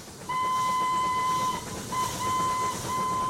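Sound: steam train with whistle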